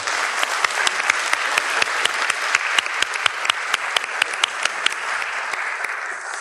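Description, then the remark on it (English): A crowd claps steadily for several seconds, a dense wash of many hands with sharper individual claps popping out, holding a fairly even loudness throughout without any voices. “Give them a round of applause, folks.”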